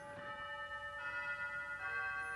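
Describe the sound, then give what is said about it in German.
A door chime rings out the familiar Big Ben melody, its bright, sustained bell-like tones shifting from note to note at moderate volume, with no voices over it. “Jetzt hört ihr die Klingel.”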